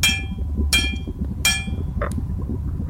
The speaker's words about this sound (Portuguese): Você vê ah, o, o cone de fogo agora te leva para uma caverna uma uhum. caverna escura, cheio de poços de lava e de metal derretido, e um barulho ritmado de martelos em cima de metal.